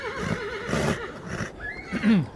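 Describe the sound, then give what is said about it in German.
Several horses gathered in a courtyard neigh and whinny, their wavering calls overlapping in a loud, warbling chorus that rises and falls over about two seconds, with no one speaking. “Und die Pferde wurden versammelt auf dem Hof.”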